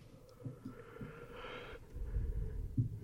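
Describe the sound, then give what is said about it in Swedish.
A drawn-out, breathy yawn, rising and fading over about half a second, followed by soft low rumbling and a few dull thumps. Nobody speaks. “Det är bara att du tar gäspningarna i försnacket.”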